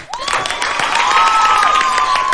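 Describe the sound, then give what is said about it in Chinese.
A burst of steady, dense applause from a crowd lasts a couple of seconds at a fairly loud, even level, with high cheering or whoops drifting over the clapping. “此时此刻，那时那刻，KKBOX 就寄来了一封 mail，问我要不要主持，拍手。”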